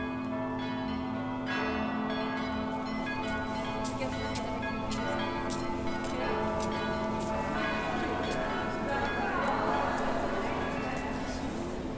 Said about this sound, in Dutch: Ik reis een straatje of een stadje om om klokken te horen in hun pendelende isoritmiek, hun, hun omlooppatronen.